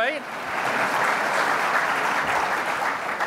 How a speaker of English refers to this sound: I also want to thank Ken and Byron DeFoor and the entire staff here at the Westin. The, yeah, y'all can give them a round of applause.